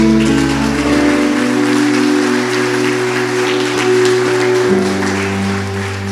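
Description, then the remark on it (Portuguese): An audience claps steadily and loudly for several seconds in praise of Jesus, a dense crackling wash of applause over sustained keyboard chords that shift once near the end. “Aplaude Jesus!”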